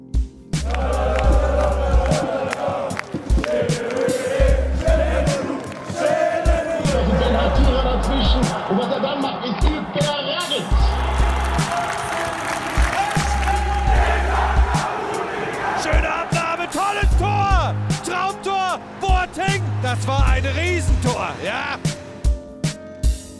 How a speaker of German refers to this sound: Jubelnde Fans, große Triumphe.